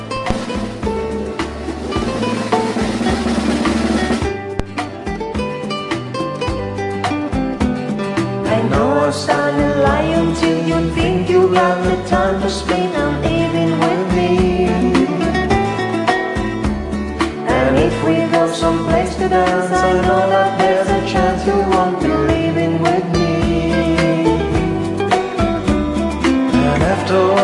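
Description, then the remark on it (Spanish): A listener's karaoke recording played on a radio show: a sung melody over a full, steady backing track, with the host adding backing harmonies. The music stays loud and continuous throughout. “mira, manda tu karaoke aquí”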